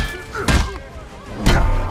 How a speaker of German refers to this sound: Diese Sounds, die Umsetzung, die Kampffähigkeiten, wenn wir zum Beispiel Thors Hammer gegen die Gegner klatschen.